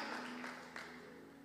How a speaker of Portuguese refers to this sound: e como igreja, antecipadamente te adoramos, aplaudindo o teu nome. No nome acima de todo nome. Aleluia!